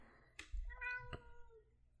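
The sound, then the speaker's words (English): A cat lets out a single drawn-out meow, fairly loud, with a wavering tone and a couple of sharp clicks around it, over a low background rumble. “What do you think, Kitty? Which way should we go?”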